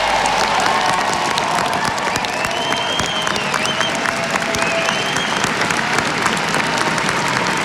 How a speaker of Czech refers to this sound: Potlesk zní na Pražské národní třídě.